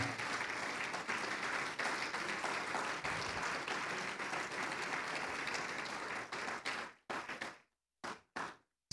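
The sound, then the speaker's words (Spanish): During a Spanish-language church service, an audience applauds loudly for the Lord for about seven seconds, a dense steady wash of clapping that then breaks into a few scattered final claps before fading out. “Si se lo va a dar, déselo fuerte, por favor, al Señor.”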